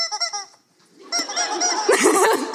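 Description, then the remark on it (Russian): A chicken squawks loudly: a quick stuttering burst of nasal clucks, a brief silence, then a longer, raucous run of strained squawks with no talking. “Да, я здесь с, с цыпленком.”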